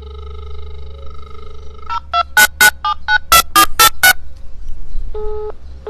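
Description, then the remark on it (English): A phone line hums with a steady tone, then a quick run of about ten dialing beeps sounds in uneven bursts, followed by a softer ringback tone near the end. “I always screw up the phone call.”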